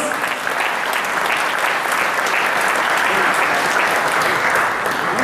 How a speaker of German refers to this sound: Vielen herzlichen Dank, das ist euer Applaus.